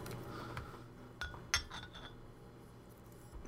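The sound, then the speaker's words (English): A bottle of dark spiced ale is opened with an Ink Whiskey capper gun: a couple of sharp metallic clinks as the cap is caught and pried off, fairly crisp against a quiet background with no talking. “I'm going to go ahead and open that up with my Ink Whiskey uh, capper gun.”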